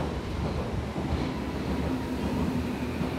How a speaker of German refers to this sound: Es rauscht jetzt gewaltig, dass es genau das, was passiert, wenn man eben in den Berliner Untergrund absteigt.